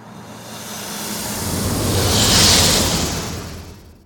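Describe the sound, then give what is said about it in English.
A sci-fi TIE fighter spaceship sound whooshes past with a snake hiss layered on top of a base layer of a car pass-by, swelling from a low rumble to a loud, breathy roar near the middle, then fading away. “So here's a version of the TIE fighter sound that instead of the elephant, I played a snake sound.”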